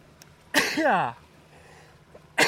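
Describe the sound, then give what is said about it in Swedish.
A single loud sneeze: a sharp explosive burst trailing into a short voiced wail, then quiet background noise before another abrupt burst at the very end. “Prosit. Prosit.”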